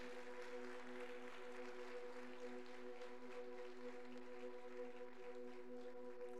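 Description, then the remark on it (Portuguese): A crowd applauds Jesus in praise, steadily and without a break, a dense, hissy wash of clapping over a sustained low keyboard chord that hums underneath the whole time. “Aplauda, aplauda o Rei, aplauda Jesus.”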